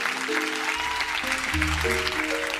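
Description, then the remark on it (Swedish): Steady, dense applause from a sizable crowd of Miljöpartiet (Swedish Green Party) members as Märta Stenevi stands on stage, a continuous wash of clapping with sustained musical tones playing underneath. “När Märta Stenevi står där på scenen framför applåderande miljöpartister”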